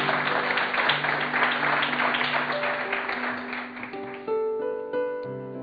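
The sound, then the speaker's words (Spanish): An audience applauds in a dense, steady wash of clapping over sustained keyboard chords; after about four seconds the clapping thins out and the music carries on alone. “Bueno, también, si quiere aplaudir.”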